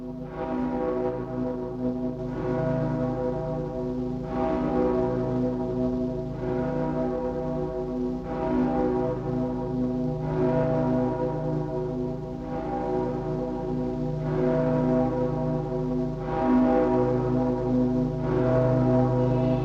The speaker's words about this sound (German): tiefen Glocken von Breslau mahnen an die Vergänglichkeit alles Irdischen und daran, dass wir Menschen eine bleibende Heimat nur im Ewigen haben.